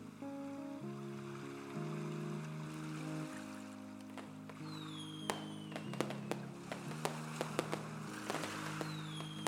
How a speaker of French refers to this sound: Des feux d'artifice sont lancés pour accueillir les héros dont tu fais bien évidemment partie.